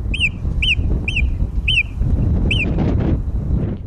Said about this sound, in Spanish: Bien, esa es la secuencia breve de una de las marmotas.